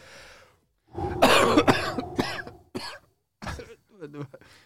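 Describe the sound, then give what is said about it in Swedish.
A harsh coughing fit: several rough bursts in quick succession, then a few shorter coughs after brief pauses, with throat-clearing sounds near the end. “Nej, det låter som att lungorna in... är i toppform.”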